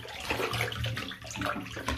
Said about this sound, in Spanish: Por favor, no para. El agua, cada vez hay más agua. Yo voy nadando ya por el camarote hundido.